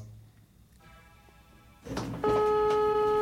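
A telephone ringing tone heard over the line as a call is placed to the social services office in Malmö: after a brief clatter, a loud, steady electronic tone sounds, continuing to the end with no one talking.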